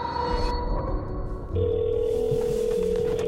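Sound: telephone dialing and ringing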